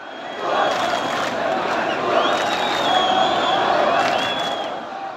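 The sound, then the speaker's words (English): A large crowd of protesters rallying in support of Palestinians roars and cheers in a dense, continuous, loud wall of voices, with shrill whistles rising above the din throughout. “From the Middle East, in places like Jordan and Iraq, to the U.S., thousands gathered on Friday to show their support for Palestinians amid devastating Israeli airstrikes on Gaza.”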